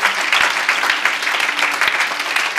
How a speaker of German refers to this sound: Come on, gebt euch mal einen Applaus. Ihr seid großartig. Ihr seid super.